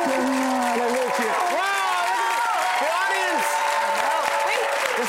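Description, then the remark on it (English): A studio audience applauds steadily for the full few seconds, welcoming Jimmy Fallon as he is introduced as a guest. It is a dense, even wash of clapping, and someone speaks loudly over it. “This the, is, this is I mean, there, are people here. It sounds great. They're awake.”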